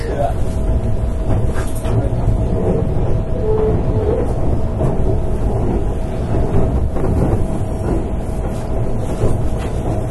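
A Keihan Railway 13000 series electric train in Japan rumbles steadily from inside the car, a dense low roar with a faint whining motor tone and occasional rattles and clacks throughout.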